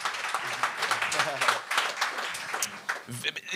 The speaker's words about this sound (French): Ça mérite ben, vraiment un applaudissement. C'est incroyable.